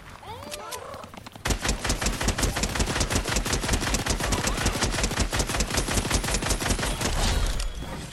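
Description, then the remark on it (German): Video game gunfire: a loud, fast, unbroken burst of automatic shots in a steady rhythm, dozens of rounds fired for about six seconds as a full magazine is emptied, then it stops. “Mal kurz mal ganz Magazin rausgeballert”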